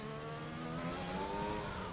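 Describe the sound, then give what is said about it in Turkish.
A loud race car engine roars with a strong harmonic drone on the Silverstone circuit. Its pitch shifts briefly as the driver brakes for a left-hand apex at the Abbey, Farm, Village and The Loop complex and downshifts to third gear. No voices are present. “Ve şu anda soldaki Apex'e gelince frene basacağım. 3'e indirdim”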